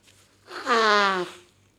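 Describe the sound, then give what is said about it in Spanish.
A single loud nasal sniffle lasting about half a second, with a slightly honking, whistly tone that drops in pitch, heard alone against a quiet background. “Me suena la nariz.”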